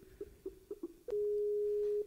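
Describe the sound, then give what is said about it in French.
Skype call ringing tones: four short electronic beeps in quick succession, then one long, steady tone held for about a second. Clear, with no voices. “On entend bien, on entend les sonneries, ouais.”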